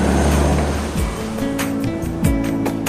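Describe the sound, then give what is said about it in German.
A seaplane taxis slowly across the water, its engine droning steadily with a couple of low rising and falling pitch shifts, over a constant loud wash of splashing waves and spray. “Wir bewegen uns jetzt schon auf dem Wasser langsam.”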